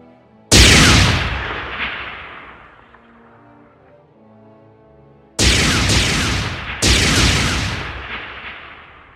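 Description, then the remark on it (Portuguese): Three loud explosion sound effects with no talking: one big blast whose rumble slowly fades, then after a pause two more booming bursts in quick succession, each with a roaring tail. “você vê que com a explosão que ocorre próximo a ele, ele é arremessado para dentro de uma caverna próxima ali.”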